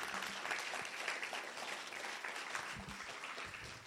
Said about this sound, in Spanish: Dale un aplauso fuerte a Jesús, claro que sí.